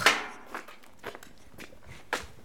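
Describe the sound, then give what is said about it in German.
Footsteps walking through a gate and up the driveway of a house: about five steady, evenly paced steps, each a short crisp scuff on the ground, fairly quiet with no talking. “Dafür gehen wir einmal durchs Tor und die Auffahrt hoch.”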